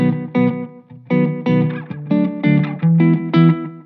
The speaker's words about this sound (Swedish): Nu har jag ställt det som ett litet slapback som jag gillar. Det är nästan som ett reverb.